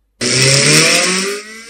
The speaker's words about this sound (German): Jetzt, während der Motor seines Porsche aufrührte, wusste er plötzlich, was ihn in den letzten Tagen so schrecklich quälte.